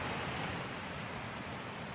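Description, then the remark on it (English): A steady, broad wash of ocean surf on a beach, a continuous hissing roar with no clear breaks between waves, heard alone without voices. “I want you to imagine waves on a beach, like the ones you're hearing.”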